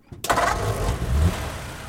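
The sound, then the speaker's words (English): A car engine turns over and catches, then settles into a steady, rumbling idle that continues to the end, as Rhine takes Linzmayer for a car ride in Durham. No one speaks. “So, on one of Linzmayer's last days in Durham, Rhine asked him to go for a relaxing car ride.”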